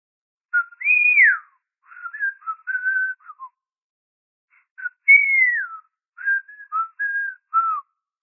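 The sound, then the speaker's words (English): A short whistled tune by Swedish people on the other side of a door, played twice, each phrase a run of sliding and bouncing notes, with a brief pause between them. The whistling is clear and moderately loud, with no talking. “On the other side of my door, the Swedes start whistling.”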